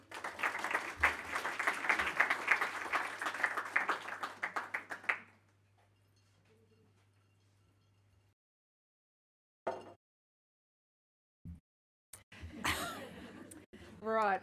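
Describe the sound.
A crowd breaks into loud, dense applause, many hands clapping steadily for about five seconds before it stops abruptly. After a quiet pause, a person begins speaking.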